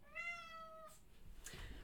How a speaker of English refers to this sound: My cat's in here begging to be let out.